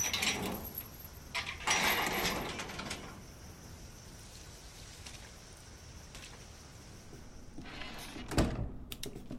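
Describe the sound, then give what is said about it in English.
A door in a video game slides shut with a grinding, mechanical rumble, then a quiet stretch before a solid thunk near the end. Nobody speaks. “Alright, door just closed on me.”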